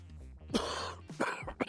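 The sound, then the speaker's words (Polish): A person coughs: one long, harsh, raspy cough followed by two short, sharp coughs in quick succession, with no talking in between; coughs caused by smog or other pollution. “Tak, to są różne kaszle powodowane smogiem czy różnymi innymi zanieczyszczeniami.”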